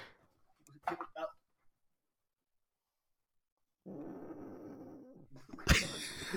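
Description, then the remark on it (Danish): A sleeping dog's heavy, raspy breathing with the microphone lowered right down to it: a low snuffling rumble lasting a couple of seconds, followed by a louder rough exhale, with brief speech-like sounds earlier and a long silent gap. “min, øh, min hund er jo faktisk øh, faldet i søvn, så kedelig synes den ja. er. Nu tager jeg mikrofonen helt ned til den.”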